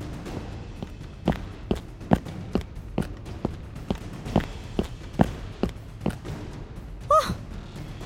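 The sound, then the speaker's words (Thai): Steady running footsteps of a young man jogging for exercise, evenly paced thuds at a brisk rhythm, followed near the end by a short breathy vocal huff. “เอ้าแล้วไอ้หนุ่มทางนั้น มาวิ่งออกกำลังกายเหรอนี่ อย่าไปคุยกับป้าแก วิ่งไปเร็วๆ”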